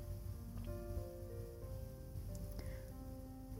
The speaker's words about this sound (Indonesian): Tapi entah kenapa, ketika hujan datang, gue merasa damai. Apalagi kalau hujannya malam, dingin, enak buat tidur. Ya gak sih? Tapi ya, memang suara hujan, suara rintik hujan dan aroma hujan itu membawa kedamaian buat gue.